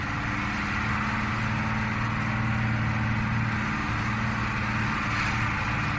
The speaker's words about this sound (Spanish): Aunque la mayoría del recorrido pasaría completamente en silencio, por momentos se pudieron escuchar algunas tímidas conversaciones en medio de los crujidos del furgón y el viejo motor diésel.